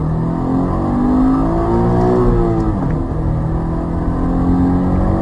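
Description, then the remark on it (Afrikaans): A Subaru-designed 2-litre boxer engine (147 kW, 205 Nm) revs steadily and loudly, its low harmonic drone climbing and falling in pitch with a brief dip midway, no voices over it. “So grom die 147 kW 205 Nm Subaru ontwerpte 2 liter bokser.”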